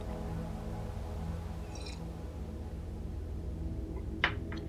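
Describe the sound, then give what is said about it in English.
A quick, quiet sip of coffee from a mug near the end, a short slurp over a steady low background hum, with a faint brief sound a few seconds before it and no talking. “I'm going to get a sip of my coffee here really quick before I continue, so hang on.”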